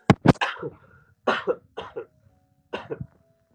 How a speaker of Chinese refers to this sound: 我咳嗽一下，我嗓子有点痒。